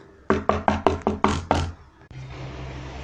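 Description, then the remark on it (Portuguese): A quick series of about seven firm, evenly spaced knocks on the wooden door of a grandmother's house, followed by a soft, steady background hum once the knocking stops. “O lobo chegou na casa da vovozinha e bateu na porta.”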